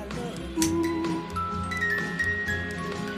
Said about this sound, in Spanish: tuvimos también la Music Box de París, que es una cajita musical hecha con maderas seleccionadas a mano, tiene la Torre Eiffel en el medio